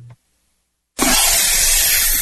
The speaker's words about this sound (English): Ah, the copperhead snake. It hisses before attacking. But that's not a copperhead. That's the Sullivan's RV freshwater tank overflowing into their black one, which is backing into their vent pipe, making for a very different kind of attack.